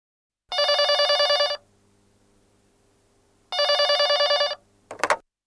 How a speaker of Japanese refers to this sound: 取引先の男の人から電話がかかってきました